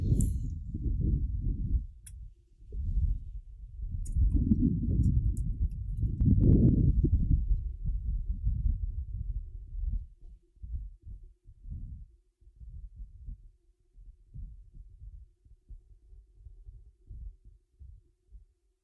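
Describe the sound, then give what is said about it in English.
Wind blows through a giant saguaro cactus in low, rumbling gusts that swell strongly, then ease into softer, intermittent puffs, with no one speaking. “Those are the sounds of the wind blowing through the uh, giant saguaro in front of me.”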